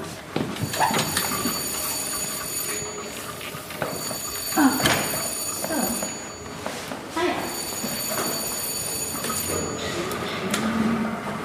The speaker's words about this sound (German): Das war das dritte Klingelzeichen.